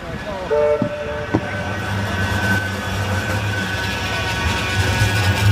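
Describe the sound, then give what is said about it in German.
A tram in Manchester rumbles past with a steady low mechanical drone, and a short two-tone horn blast sounds early on before the rolling noise continues. “Erkennen Sie Stadt am Geräusch Ihrer Straßenbahn?”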